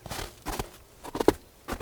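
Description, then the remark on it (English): Footsteps crunch through snow at the back of a garden in Scotland, at a slow, steady pace, four or five moderately quiet steps with short gaps between them and no one talking, while snow falls fairly heavily. “That's just me on the snow.”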